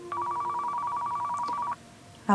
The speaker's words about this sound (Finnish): Heräsin puhelimen soittoon.